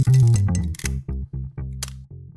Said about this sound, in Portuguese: Mas antes do Cassiano falar, sobe a vinheta.